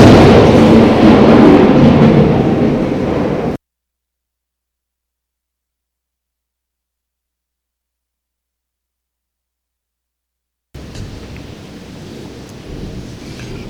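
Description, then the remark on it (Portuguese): A loud, deep rumble of thunder rolls for a few seconds and cuts off abruptly, then after a silent gap a softer, steady wash of falling rain continues. “trovão sim. Nosso mestre está nos chamando a atenção. Cuidado que está chovendo.”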